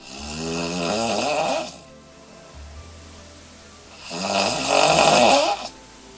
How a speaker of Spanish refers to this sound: Y cuando uno ronca, el resto no puede dormir. A veces, si el ronquido es muy fuerte, ni duerme el que está al lado, ni el que está en la otra habitación. Incluso puede despertarse el que ronca.